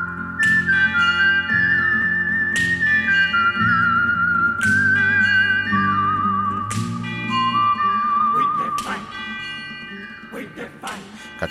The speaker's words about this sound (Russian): И вновь спагетти вестерн, и вновь Серджи Леоне. На этот раз мы слышим тему из фильма «За пригоршню долларов». Но вслушайтесь, из чего здесь состоит ритмический рисунок, а состоит он черт знает из чего.